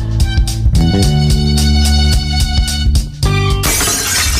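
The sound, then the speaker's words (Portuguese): A short burst of music with sustained tones gives way near the end to a loud crash of glass shattering, its bright, scattered fragments filling the last second. “O seu vidro quebrou?”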